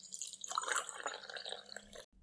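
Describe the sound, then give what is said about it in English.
Water pours from a bucket in a steady splashing gush for about two seconds, then cuts off abruptly. No voices are heard. “Well, when it's a thousand degrees outside, I'm always flattering to a woman with a bucket of water.”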